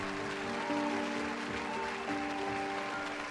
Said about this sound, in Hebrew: ואז, משום מקום, מישהו מוחא כפיים. ובבת אחת כולם נעמדים ומריעים.